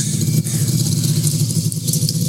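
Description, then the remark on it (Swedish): A small moped engine buzzes steadily, a droning low hum with a rough rattle that holds for a couple of seconds as it passes. “kommer en moppe här också.”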